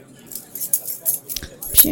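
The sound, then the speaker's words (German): Keys jangle in a series of bright, metallic bursts that rattle irregularly for about two seconds as a key is fetched, with a faint murmur of voices in the background. “aber du holst mal einen Schlüssel.”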